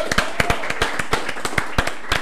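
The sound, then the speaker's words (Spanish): A small group applauds for the people of Figos, Pepitos House, in Valencia, with sharp, uneven hand claps layered over a steady wash of clapping that holds at the same level for the whole stretch. No one speaks. “Un aplauso para la gente de Figos, por favor.”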